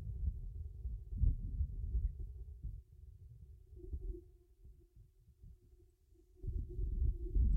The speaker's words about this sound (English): Those are the sounds of the wind blowing through the uh, giant saguaro in front of me.